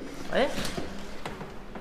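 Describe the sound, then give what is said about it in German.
A door is opened and passed through, with a couple of sharp latch clicks and knocks, followed by a soft thud, while a voice murmurs briefly at the start. “Wir müssen hier durch die Tür”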